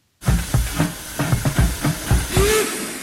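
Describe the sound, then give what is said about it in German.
A small park railway steam train in the Schlossgarten in Karlsruhe hisses loudly and steadily, with rhythmic chuffing bursts and a brief whistle-like tone near the end. “Seit 20 Jahren lenkt sie nun schon den kleinen Zug durch den Park.”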